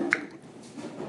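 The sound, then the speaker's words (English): A glass Everfresh juice bottle being opened: one sharp pop-like click from the cap, then a short stretch of soft, low rustling handling noise with no voices. “Sliding my keys across the laminate countertop, opening a uh, glass bottle of juice.”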